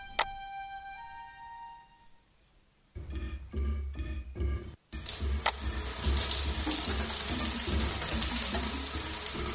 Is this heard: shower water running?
yes